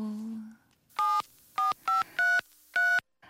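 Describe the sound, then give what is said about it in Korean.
Five distinct telephone keypad tones beep in an uneven sequence as someone dials an office number, each a short, clear dual-pitched button press, fairly loud, preceded by a brief low hum and a faint voice fragment. “전화기가 왜 꺼져 있지? 배터리가 나갔나? 그럼 사무실 번호로”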